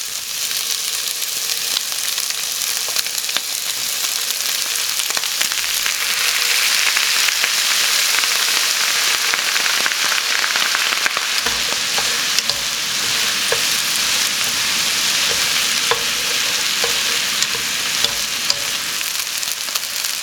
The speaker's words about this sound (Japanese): 今朝はシャキシャキキャベツを使った焼きそばのいい音それではお聴きください